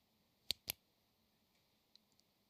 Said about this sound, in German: Ein Kuli.